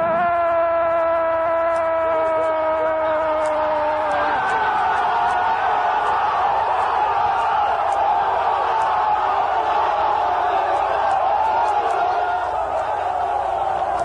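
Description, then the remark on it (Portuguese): A packed football stadium crowd erupts in a loud, continuous roar of cheering at a goal by Galeano for Palmeiras, filling the whole stretch, with a long sustained horn-like tone ringing over the first few seconds. “E a notícia que trouxe do Mineirão a vitória do Atlético sobre o Inter foi o primeiro sinal de uma explosão definitiva, detonada pelo gol de Galeano. Bateu direto, Zete, pegou, largou. Gol!”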